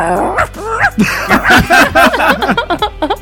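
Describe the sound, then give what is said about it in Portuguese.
A person vocally imitates an old poodle, producing a rapid series of short, yappy barks and whines, with chuckling mixed in. “faz aí o cachorro”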